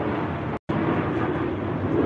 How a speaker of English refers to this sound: Y'all can hear me over this plane. I talk loud.